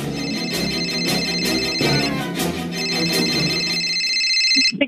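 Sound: cell phone ringing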